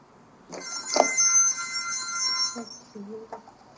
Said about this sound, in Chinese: 刚刚的刚刚的铃声是， 嗯 就是打电话问体温的机器人。